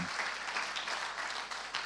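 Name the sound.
audience hand clapping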